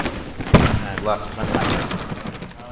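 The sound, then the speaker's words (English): A lion dance costume's large eyelids flap shut as a dancer practicing the lion's facial movements makes it blink using a cord from inside: a few soft papery thuds spaced irregularly, the first the strongest, with faint voices murmuring in the background. “The flapping sound is the eyes blinking.”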